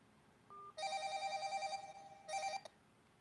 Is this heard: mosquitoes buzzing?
no